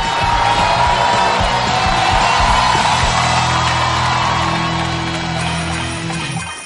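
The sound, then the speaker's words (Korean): An audience welcoming panel guests breaks into loud, sustained applause and cheering, with whoops and shouts rising over dense clapping for several seconds before easing off at the end. “여러분 더욱더 큰 박수를”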